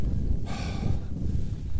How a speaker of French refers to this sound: Là, vous entendez quelqu'un en train de scier la carcasse.